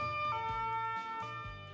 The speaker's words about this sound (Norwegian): For eksempel, en ambulanse sin sirenelyd er alltid den samme, men hvordan har det seg da slik at vi kan høre forskjell på en utrykningsbil som kommer kjørende mot deg